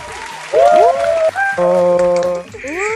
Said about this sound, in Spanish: es que le vamos a dar la más alegre bienvenida a nuestra jueza invitada a este capítulo, una de la casa, un gran aplauso para la Calisteria.